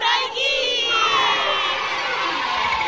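A short jingle for a learn-Taiwanese segment: children shouting and cheering together, a loud, sustained burst of high-pitched voices lasting about three seconds with no pauses.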